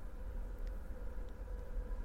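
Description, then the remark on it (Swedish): A train rumbles past, a continuous low, droning roar with faint mechanical hum on top and no noticeable rise or fade. No one speaks. “Nu kommer tåget, hör ni det?”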